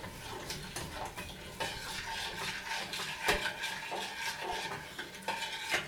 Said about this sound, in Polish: Mieszamy, zbierając z brzegów, też proszek z brzegów garnka drobny osiad w trakcie mieszania. Mieszamy tak długo, aż podczas mieszania nie czujemy już pod łyżką żadnych fal e, czy grudek.